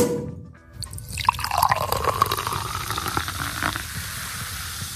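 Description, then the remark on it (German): Drinks are poured into glasses for a toast by four people, a steady splashing stream with a rising, bubbly gurgle as the glass fills, continuing for several seconds with no talking. “Ich würde vorschlagen, wir trinken jetzt alle vier dann ein Glaserl drauf.”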